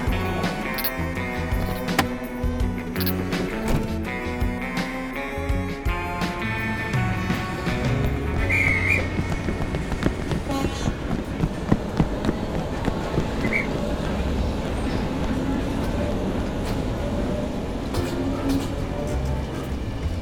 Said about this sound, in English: Hey, train's about to go.